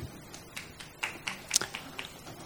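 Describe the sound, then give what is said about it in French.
A few scattered audience claps, sparse and irregular, rising briefly around the middle before thinning out. Quiet overall, with no voices. “Bon, pas besoin d'applaudir.”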